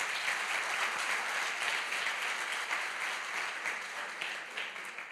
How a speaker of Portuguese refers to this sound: Dê um aplauso ao Espírito Santo nessa noite.